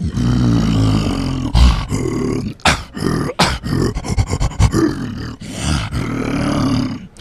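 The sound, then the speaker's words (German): A male actor imitates an ape with a long, loud, guttural roar, rasping and growling in bursts with brief breaks, forceful throughout. “Der Affe als solcher würde pur so klingen.”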